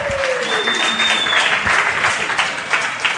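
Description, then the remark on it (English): A crowd applauds steadily and loudly for linebacker Jake Martin, a rookie out of Temple, on Hawks Live on 710 ESPN Seattle, a dense wash of clapping that fills the whole clip, with a brief whistle cutting through near the start. “I want you to know, Jake, that's as big of a, of a applause as we've gotten in a long time.”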